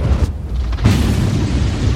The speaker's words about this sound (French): C'est un éclair mais il est extrêmement puissant. À l'impact, une onde de choc terrible se déverse sur eux.